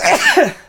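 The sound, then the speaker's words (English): A single quick sneeze, a sharp, breathy burst that sweeps downward and fades within a moment, with no talking around it. “bless you”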